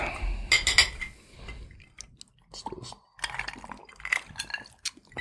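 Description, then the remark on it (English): Glasses of Jura whiskey clink together in a toast, a bright ringing chime, followed by soft handling and shuffling noises and a second, lighter clink a few seconds later. “Let's get to this whiskey first. Let's open that up.”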